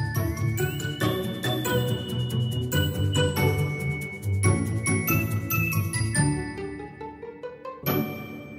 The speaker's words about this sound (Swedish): Så nu tycker jag att vi lyssnar på fem sekunder glad musik och sen så eh, börjar vi.